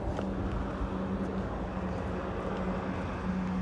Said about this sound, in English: How did that bus sound? Does it sound alright? I love the way the bus sounds. I, I really do. I love. The, I always want to get like a really solid recording of a bus going by.